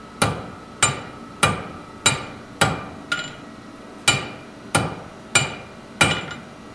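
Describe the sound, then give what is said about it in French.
A hammer rings out against metal at a forge in Montreal where a knife is being forged, nine sharp strikes in a steady rhythm about a second apart, each with a bright metallic ring that decays quickly, with no voices. “Hello, aujourd'hui on vous emmène à la forge.”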